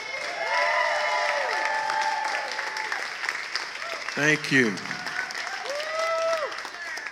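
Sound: audience round of applause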